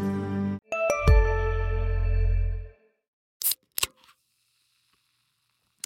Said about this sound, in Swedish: ett glas Cola Zero, en citron och några isbitar. Ja, för mig lät det här gott, i alla fall fram till i morse när jag läste att sötningsmedlet aspartam nu är klassat som möjligen cancerframkallande.